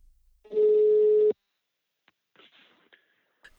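A single steady ringback tone sounds for just under a second, as on an outgoing phone call, followed by quiet line noise and a few faint clicks.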